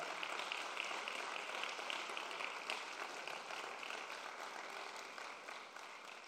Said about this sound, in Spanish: Vamos, si usted quiere rebosar, denle, un aplauso al Señor.